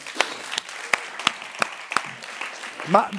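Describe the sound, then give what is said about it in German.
Scattered, irregular clapping from an audience applauding the worship band, a handful of sharp claps spread across a few seconds, with a brief voice rising near the end. “Geben wir nochmal einen Applaus der Worship Band.”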